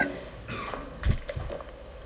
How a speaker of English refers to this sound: You're going to get sick of me coughing.